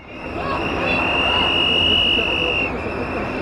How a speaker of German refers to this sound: Pfiffe und Proteste beim Eintreffen des Atommülltransports heute Mittag um 13.05 Uhr am Zwischenlager in Gorleben.